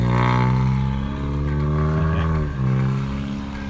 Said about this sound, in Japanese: 車の音がうるさいですね